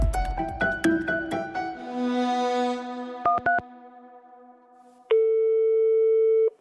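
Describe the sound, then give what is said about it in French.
Telephone tones of a call placed to the fire brigade by an 82-year-old man having trouble breathing, in Vendœuvre-lès-Nancy, France, in December 1990: a quick run of keypad beeps, then a loud, steady ringing tone held for over a second, with softer tonal sounds before it and no talking. “Il a du mal à respirer. Alors il appelle les pompiers.”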